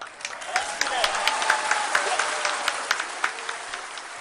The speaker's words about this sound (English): That's the cheering from the scientists and engineers crowding the control room after the careful, controlled descent of the Chandrayaan 3 mission's Vikram lander.